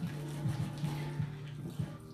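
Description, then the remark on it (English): Water pours in a steady, unbroken stream into pancake batter for a couple of seconds, fairly loud, with a low hum beneath and a few soft splashy bumps. “Making our pancake batter, adding some water.”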